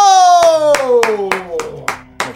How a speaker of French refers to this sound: seul à applaudir, c'est.